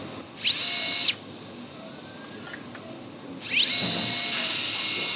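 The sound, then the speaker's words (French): A high-pitched surgical drill bores a hole in bone, into which an anchor is then inserted to fix a ligament or tendon to the bone. It whines in two bursts, a short one and then a longer one, each spinning up quickly to a steady shrill pitch, fairly loud with no talking. “Donc je fais un trou.”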